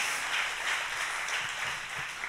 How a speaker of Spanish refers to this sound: un fuerte aplauso al Señor. ahead and give the Lord a strong round of applause.